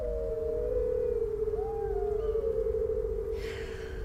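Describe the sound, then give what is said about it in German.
Several wolves howl together in long, overlapping sustained tones that rise and dip slightly, fairly loud and unbroken for the whole stretch, with a faint breathy hiss near the end. “Aber wenn Vollmondlicht sie berührt, dann werden sie zu wunderschönen Wölfen. Und musikalisch werden sie auch.”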